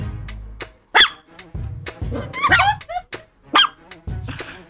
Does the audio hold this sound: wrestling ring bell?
no